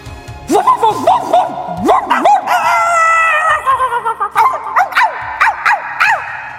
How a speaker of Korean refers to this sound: 어떡 그때였습니다. 어, 제가 닭소리를 크게 내자 제 닭소리에 화답이라도 하듯 어디에서가 들려는 감격적인 개소리.